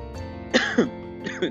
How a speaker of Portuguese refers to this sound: eu ah, tô tossindo.